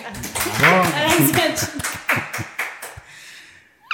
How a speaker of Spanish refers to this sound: un aplauso a todos, por favor.